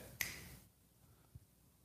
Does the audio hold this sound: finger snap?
yes